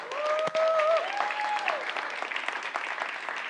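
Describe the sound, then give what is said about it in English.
An audience claps to praise the Lord, a dense, sustained wash of applause, with a brief vocal whoop or tonal cry rising over the clapping near the start before it settles into even applause. “Come on, y'all give the Lord a big hand for this.”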